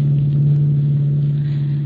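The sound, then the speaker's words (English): A car races along the road toward Mount Albans College for Girls, its engine droning steadily, a loud, continuous low hum with road rumble underneath and no voices. “car racing toward Mount Albans College for Girls in response to a hurried phone call from the dean of the school.”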